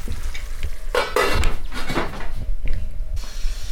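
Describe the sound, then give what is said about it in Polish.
Rolled beef roasting in a pot with enough fat and moisture, not yet needing basting: a steady crackling sizzle of fat with occasional clinks and scrapes of a utensil against the pot, fairly loud, no talking. “Mięso się piecze, ma dosyć tłuszczu, dosyć wilgoci.”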